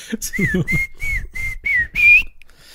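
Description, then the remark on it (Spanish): A person whistles a Mexican barrio-style signal by mouth, the kind used to call or find people, even in shops like Walmart: a quick run of short, bright notes, then a longer, higher note that rises at the end. Clear, with no talking. “Pero no el chiflido de.”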